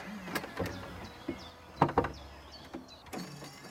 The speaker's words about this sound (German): Und dann kann ich jetzt die Eingangstür öffnen.